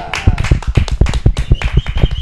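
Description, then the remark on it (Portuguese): A brief burst of applause for the evaluators: quick, overlapping hand claps rattle along steadily and fairly loudly for a couple of seconds, with no one talking over them. “uma salva Aê. de palmas.”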